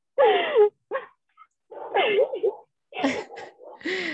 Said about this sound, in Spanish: Ay, güey, el maldito de mi perro nada más salió acá al patio a ladrar.